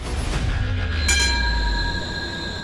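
A tram rolls along its rails with a steady low rumble, metallic wheel squeals and ringing tones rising above it, continuous with no one speaking.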